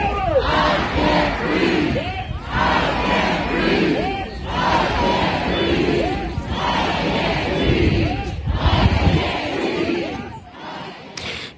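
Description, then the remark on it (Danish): A large protest crowd chants the slogan "I can't breathe", referring to the death of George Floyd, in unison, voices rising in loud, regular bursts roughly every two seconds, with a dense roar of many people filling the gaps. “I can't breathe, bliver der råbt, og det refererer naturligvis til den 25.”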